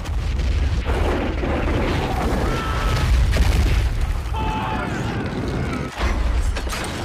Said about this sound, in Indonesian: Selanjutnya dengan menggunakan howitzer, mortir, dan meriam, pasukan Belanda menembaki benteng Bonjol Namun kaum Padri tak tinggal diam. Mereka menembakkan meriam pula dari Bukit Tajadi.